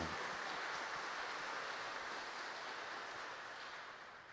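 A crowd at the Basílica Velha applauds for Nossa Senhora (Our Lady) in a dense, steady wash of clapping that holds for about four seconds before easing off slightly at the end, with no voices over it.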